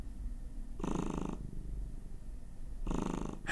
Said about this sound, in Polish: Mruczenie, no. wydawanie tego gardłowego dźwięku.